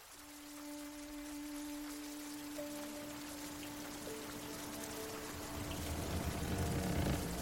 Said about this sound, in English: we are out at sea, there is a chaotic scene as rain beats down from the sky.